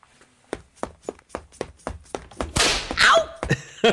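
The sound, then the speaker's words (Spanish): Someone imitates a tendon tearing with a quick run of sharp snapping thunks in a steady rhythm, then a brief rushing, rustling burst followed by a couple more snaps. “Como un chasquido. Oye, he pensado que a lo mejor te lo podía reproducir así.”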